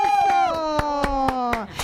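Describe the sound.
Sharp, evenly spaced claps, about four per second, ring out in a steady beat over a long sustained voice-like tone that slowly drops in pitch.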